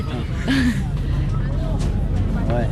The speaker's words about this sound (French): Et là on est accueilli aussi par les mouettes.